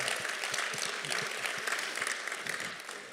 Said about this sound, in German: Komm, gebt euch mal selber einen Applaus. Das ist toll.